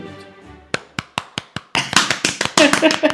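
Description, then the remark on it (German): A fading tone gives way to hand clapping: five crisp, evenly spaced claps, then louder, faster, more irregular clapping that swells into a short burst of applause. “Und wir klatschen mal laut.”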